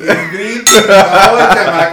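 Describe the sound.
Glasses clink together in a toast, a sharp bright chime that rings on briefly, with chuckling voices before and around it.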